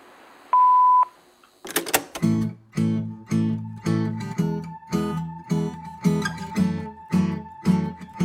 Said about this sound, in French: Après la tonalité, c'est moi qui vous laisse un message.